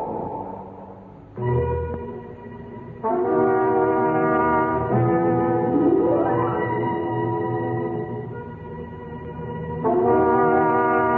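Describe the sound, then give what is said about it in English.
A door creaks open slowly in long, drawn-out groaning tones that rise and shift in pitch, loud, with no one speaking, the signature sound of the radio show The Creaking Door. “The creaking door.”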